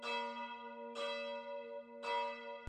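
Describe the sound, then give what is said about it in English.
A bright, resonant bell strikes three times at a steady pace, each ringing tone sustaining and overlapping into the next. It is clear and prominent, with no voices. “Can you add in this sound effect for me? Because I would like for you to add in ding dong”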